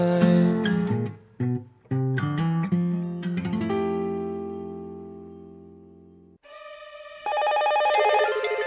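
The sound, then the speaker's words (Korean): An electronic telephone ring for a radio listener phone-in quiz plays loud, a run of bright melodic beeps that hold into a steady tone, then a higher trilling ring pattern, with no one talking. “청취자 전화 퀴즈 다 같이 원, 투, 쓰리, 포.”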